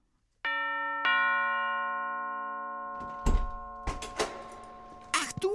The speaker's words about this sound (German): Ja, also ganz überraschend, es klingelt nochmal bei Ebenezer an der Tür. Vielleicht sollte er sie einfach offen lassen.